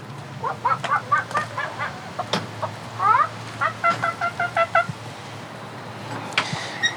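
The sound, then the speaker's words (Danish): Hens cluck in a steady run of short, nasal calls, with a few rising squawks mixed in over a low background hum and occasional faint noises. “Skal vi ikke lige gå hen og tjekke til de der høns, der laver sådan en, der laver den der morgenjuice der?”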